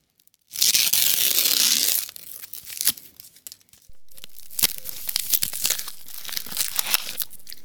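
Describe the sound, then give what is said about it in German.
A loud rip of the plastic wrapper on a pack of Neapolitan wafers tearing open, followed by several seconds of crinkling and rustling packaging with sharp crackles as it is pulled apart. No one speaks. “Und was ihr gerade gehört habt, liebe Zuhörer, war das Aufreißen und Öffnen einer Packung Neapolitaner-Waffeln.”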